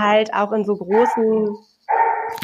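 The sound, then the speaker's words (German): A woman's own dog barks a few times, the sharp yelps overlapping with her ongoing speech before a brief pause and more talking. “ähm, das ist mein Hund, Entschuldigung.”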